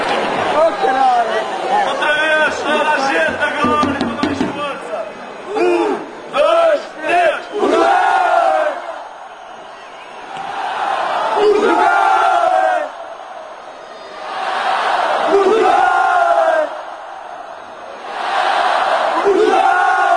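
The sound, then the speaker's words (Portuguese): Football supporters in a stadium chant a jogral loudly in unison, voices rising and falling in rhythmic swells with brief pauses between phrases, echoing. “Então vamos ouvir agora o Jogral.”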